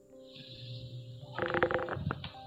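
A low rumbling drone swells into a harsh, snarling growl of a bestial, horned creature whose shadow shows in a moonlit window, peaking loudly for about a second before trailing off, heard alone without any talking.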